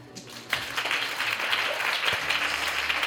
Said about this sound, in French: Un applaudissement.